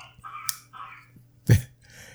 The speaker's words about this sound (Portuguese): Estás a ouvir de fundo o teu filhote, coitadinha. Coitadinho, é o, é? mais pequenote é? está, está com tosse, isto são as alergias.